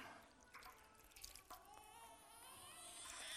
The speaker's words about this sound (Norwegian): Vann i dåpsfatet.